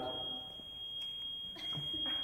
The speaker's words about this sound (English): I thought it was a fire alarm. I'm sorry. I, that kind of creeped me out.